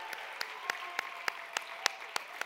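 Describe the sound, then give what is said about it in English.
Audience applause with a steady, rhythmic beat of claps landing together about three times a second over a soft wash of scattered clapping, as the youngest Flourish girls are asked to stand up. “And let's give it up for our youngest girls, stand up girls.”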